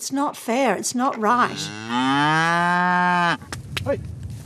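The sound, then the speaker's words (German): A cow on an organic farm specializing in breeding cows moos loudly, a long drawn-out low bellow following a few shorter calls, with faint farmyard noise afterward. “Er hat sich auf Zuchtkühe spezialisiert.”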